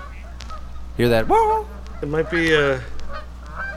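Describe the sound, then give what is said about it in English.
Blue geese honk in a few loud, nasal bursts, the calls rising and falling over a steady low hum, with a man's voice talking quietly in between. “Those are blue geese.”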